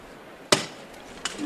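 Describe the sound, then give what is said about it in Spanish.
The knocker hammer on the procession float of the Señor de la Divina Misericordia, Hermandad de las Siete Palabras, at the parish of San Vicente, strikes once, a sharp wooden knock, loud and percussive, followed after a pause by a second, fainter strike, with steady background murmur around them. “Vuelve a sonar el martillo.”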